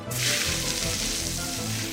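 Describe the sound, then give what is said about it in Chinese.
A loud, steady hiss as a little flying elephant sprays lots of water from its trunk into a fire-breathing dragon's mouth, a broad sizzling rush that starts abruptly and holds for about two seconds with a low rumbling undertone. “想不到，他一张开口，小飞象居然慌张的把鼻子对准喷火龙的嘴巴，喷了好多水。”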